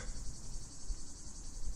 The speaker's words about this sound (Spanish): pero el canto de las cigarras la intimidó.